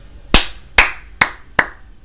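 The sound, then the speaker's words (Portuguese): Four sharp hand claps in a slightly uneven rhythm, each a bright, crisp smack with a short decay, the gaps between them shrinking a little toward the end. “Palmas, meu amigo, palmas, muito obrigado.”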